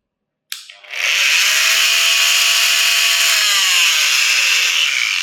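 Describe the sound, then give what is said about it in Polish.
An oscillating cast saw, which oscillates rather than spins, starts with a sharp click and runs as a loud, steady high-pitched whine and buzz, grinding continuously through a plaster cast to remove it for several seconds with no one talking. “E, więc tak działa piła, my e, ściągamy gipsy piłą.”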